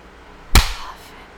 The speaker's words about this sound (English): Now I'm gonna clap and then whisper the word